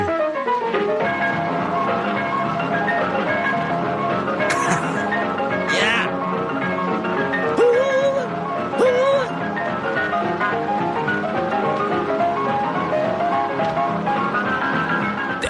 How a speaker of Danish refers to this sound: Der er stadig krig i verden, og øh, drengene, de har altså... Øh, de har så altså valgt at svinge. De spiller sig ud af det. Prøv lige at høre, hvordan at de giver den noget boogie-woogie her. I 44. Tag den væk, drenge.